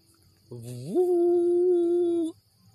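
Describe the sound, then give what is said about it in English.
A single ram's horn (shofar) blast, opening on a low, buzzy note that swoops up to a higher, steady tone. It holds for nearly two seconds, then cuts off, loud. “Yeah, that's the ram's horn. That's the sound.”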